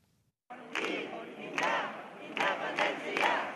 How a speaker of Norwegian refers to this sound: Tilhengere av å bryte ut av Spania klapper og synger frem resultatet av gårsdagens folkeavstemning.